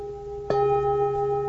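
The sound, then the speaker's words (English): A meditation bell is struck once, its clear, steady tone ringing out and sustaining evenly, layered over a faint hum of an earlier ring still lingering beforehand. No voices. “Any difference at all between the sound from this voice and the sound from this bell?”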